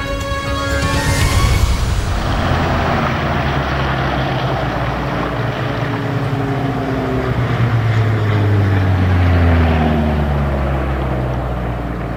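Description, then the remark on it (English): A small single-engine propeller plane towing a huge banner drones loudly in the blue sky over Melbourne on Saturday 10 October, its buzzing engine tone sliding gradually lower as it passes, steady and continuous with no voices. “В събота 10 октомври в синьото небе над Мелбърн летеше малък едномоторен самолет, който дърпаше огромен плакат с надписа «Сек Ден Ендрюс Скраб Омнибус».”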